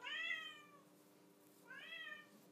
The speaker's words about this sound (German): Ja, die Katze.